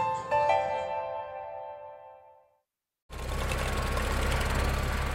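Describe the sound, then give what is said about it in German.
A ringing tonal chime fades into a brief silence, then a tractor's steady, droning engine starts up loud, with a broad rumbling roar as it mows partly man-high grass on a test field in a rewetted moor between Günzburg and Riedhausen in the Swabian Donaumoos, at harvest time in mid-October. “Ein Traktor mäht das Versuchsfeld zwischen Günzburg und Riedhausen im schwäbischen Donaumoos.”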